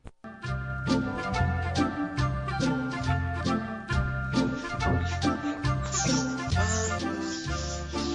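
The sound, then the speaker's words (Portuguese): A parody song recording plays loud, with a steady bouncing bass line under bright, tinkling instruments, continuous for several seconds with no talking over it. “ao som do, de Cantando na Chuva. Vamos ouvir a nova versão.”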